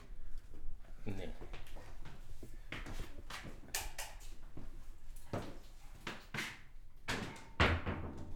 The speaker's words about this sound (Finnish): Aiko pistää oven kiinni, niin avuhuudot ei kuulu.